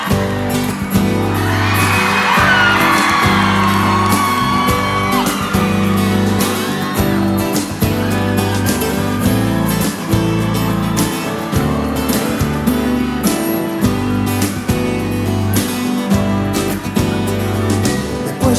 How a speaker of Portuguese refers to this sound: A música que marca a minha vida, nós vamos ouvir agora, ó.